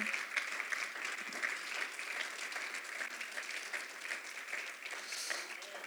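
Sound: applause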